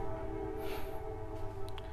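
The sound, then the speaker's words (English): A train horn blares in a sustained, steady tone, accompanied by the low rumble of a passing train, filling the whole clip. “Sorry, I'm not sure if you hear that train”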